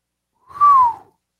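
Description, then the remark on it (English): A person whistles a single short note, clear and fairly loud, that glides slightly downward in pitch and fades out after about half a second, with no talking. “you hear that whistle?”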